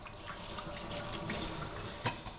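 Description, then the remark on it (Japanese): Steady rushing of a running kitchen tap with dishes being washed beneath it after cooking, a few soft clinks and splashes, one sharper clatter near the end; continuous, no voices. “今回はその料理の後のね、えー、食器洗いの環境音をパックにしながら、ね、えー、食器洗いの洗剤のお話をしてみました。”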